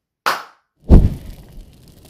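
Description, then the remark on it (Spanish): A single crisp hand clap or attempted finger snap, used as the sound effect for a show's first section, rings out, followed moments later by a heavier, bass-rich thump that fades slowly. No one speaks. “siempre representa con su famoso aplauso, o que sea que haga... Tronando, tratando de tronar los dedos”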